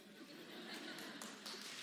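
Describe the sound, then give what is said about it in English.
Two people clapping: a few scattered, faint handclaps, irregular and sparse, heard over a low steady background murmur. “Two people clap, but that's okay.”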